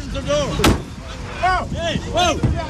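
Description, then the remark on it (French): A truck driver shuts himself in his cab: the heavy cab door slams shut with a sharp, solid thud, followed by a second fainter knock, amid several voices calling out and talking loudly outdoors. “Le chauffeur s'enferme dans sa cabine.”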